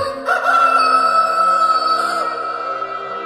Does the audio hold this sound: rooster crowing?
yes